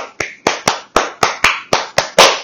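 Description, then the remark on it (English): A steady, rhythmic run of sharp hand claps, about eight in a row, each crisp and loud with a short decaying tail: a concert crowd clapping out the opening beat of a band's song to call the band back for an encore. “The best part of their set was the encore, where we literally uh, summoned them forth, not by chanting encore, but by doing the hand claps at the beginning of that one song, just literally going”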